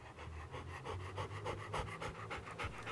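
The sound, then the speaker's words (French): A 2-3 year old Bernese mountain dog pants rapidly and steadily, quick breathy bursts repeating in an even rhythm throughout, with no voices. “Bouvier bernois de 2-3 ans.”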